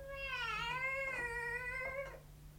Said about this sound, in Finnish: Kisu, kisu, kisu. Tule säkin mukaan.